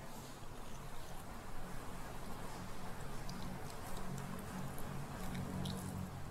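Soft crackling and small ticking snaps as a boiled egg's shell is cracked all over and peeled away to make ramen eggs, quiet, with faint moist squishing over steady low background noise and no talking.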